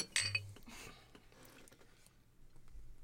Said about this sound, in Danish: Der er allerede øh, et glas vand her, så kan vi lige skåle alle sammen. Nå ja. Ja, skål. Skål.